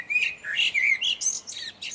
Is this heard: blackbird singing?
yes